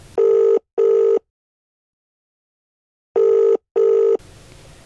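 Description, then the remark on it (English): A phone's ringback tone on an outgoing call to the caller's dad, made outside a school: two short double-pulse rings separated by about two seconds of silence, clear and steady, followed by faint background hiss as the line connects. “I looked down at my trembling hands and acquired all my strength to hit call.”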